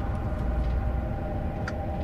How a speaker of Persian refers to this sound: ماشین اومده تو پارک